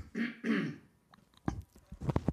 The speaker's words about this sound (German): Oh Mann, ich muss mich mal hier räuspern.